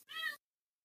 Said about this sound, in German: Mhm, Katze stimmt mir zu.